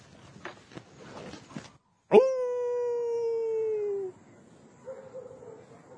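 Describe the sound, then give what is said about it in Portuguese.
In the woods in the dark in Paraíba, a man lets out one loud, drawn-out howl imitating a wolf, holding a steady tone for about two seconds before it sags and cuts off, after some scattered rustling and knocks. “no meio do mato, na escuridão, eis que aparece um maluco uivando como, como lobo.”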